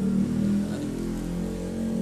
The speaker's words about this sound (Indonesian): maaf ya berisik suara motor di rumah rumah gue di pinggir jalan